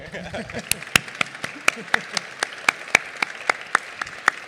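An audience applauds, with sharp, distinct claps landing in a steady, fairly quick rhythm over a softer patter of scattered clapping, a brief murmur of voices at the start.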